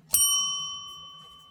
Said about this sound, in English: that bell that you hear, one ring, is we need a beer, two rings, shots.